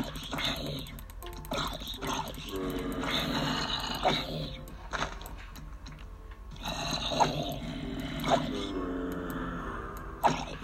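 Low, guttural zombie groans from a video game rise and fall in several drawn-out bursts, fairly loud, with brief clicks and short pauses between the moans.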